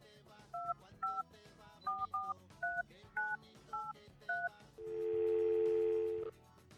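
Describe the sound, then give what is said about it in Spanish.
Telephone keypad dialing a call to Martín: a quick run of about eleven short electronic beeps, each a blended two-pitch tone, then a single longer steady tone, with a faint murmur of background sound underneath and no talking. “Voy a llamar a Martín.”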